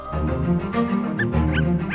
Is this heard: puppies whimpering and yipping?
yes